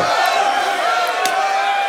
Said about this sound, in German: Einmal Applaus